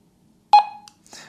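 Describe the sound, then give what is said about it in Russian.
A walkie-talkie's key lock beep, sounding when the plus and minus buttons are pressed and held together to lock against accidental channel switching: one short, mid-pitched electronic tone with a quickly fading tail, followed by a faint click and a soft burst of noise. “раздается звуковой сигнал и включается блокировка от случайного переключения каналов.”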